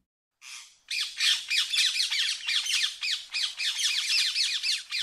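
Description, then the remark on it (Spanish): Parrots or parakeets squawking loudly and continuously, a dense run of harsh, rapid calls lasting several seconds after a brief opening screech, with no one talking. “En la España de los años 80 y 90 se puso de moda tener loros o cotorras en casa como mascotas.”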